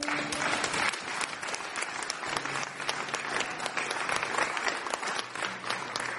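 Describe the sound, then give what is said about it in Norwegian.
An audience applauds steadily, many hands clapping in a dense, sustained patter at even loudness for several seconds, with no voices rising above it. “Gi en applaus til de som ba den bønnen for første gang.”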